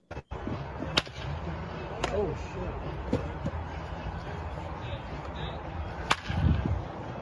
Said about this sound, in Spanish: fíjense en el primer swing que hace, se oye, fíjense el ruido es el, swing del sonido, de la fuerza del bate bajando, es lo que hace el... y después la explosión de la pelota con el bate.